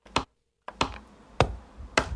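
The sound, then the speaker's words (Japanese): Four sharp, percussive taps spaced roughly half a second apart as a personal seal (inkan) stamp is pressed firmly onto paper, fairly loud with a faint noisy background between them. “この印鑑を押す音ねこれがねもう大活躍”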